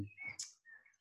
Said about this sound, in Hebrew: אני יוצא החוצה, אני שומע את הציפורים אצלך עכשיו, אני שומע את הספרי אה, שחורו ששר שם